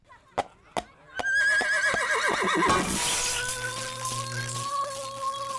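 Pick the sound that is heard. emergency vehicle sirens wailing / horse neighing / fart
horse neighing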